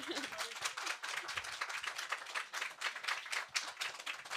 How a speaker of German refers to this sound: Jetzt zum Beispiel wäre ein richtiger Zeitpunkt, einen Applaus einzuspielen. Wunderbar.